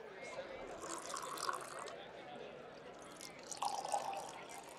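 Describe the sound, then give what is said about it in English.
Organizers pour tap water from heavy bottles into stemmed glasses in two short bursts for judges at a water tasting, a liquid gurgle with a ringing, glassy tone, over a soft murmur of background voices. “The organizers pour water from heavy bottles into stemmed glasses before handing samples from cities large and small to each of the judges, who are grading them on a scale of 1 to 10.”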